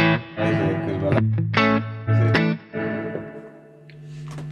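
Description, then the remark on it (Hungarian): An electric guitar plays through an amp with clean and crunch channels, set to the clean channel: a handful of struck chords and sustained notes, fairly loud, the last one left ringing out. No one speaks. “Nézzük, ez mi, ja igen, fontos, normál csati van egy, egy clean és egy crunch állása, ez most a clean állása, ugye? Igen, clean állása.”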